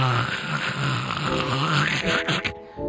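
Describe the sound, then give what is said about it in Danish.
A harsh, guttural metal-style vocal growl, held loud for nearly three seconds with a rough, rattling texture before breaking off. “Så kunne jeg growle Masser af røg, ikke?”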